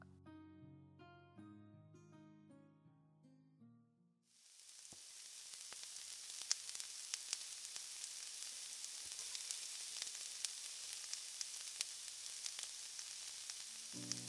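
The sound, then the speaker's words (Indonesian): A few seconds of soft melodic music give way to loud, steady sizzling of food frying and burning in a pan, a bright hiss sprinkled with sharp crackles and pops that continues to the end. “Eh, gosong.”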